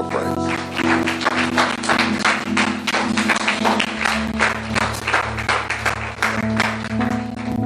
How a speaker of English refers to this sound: Give God a hand clap.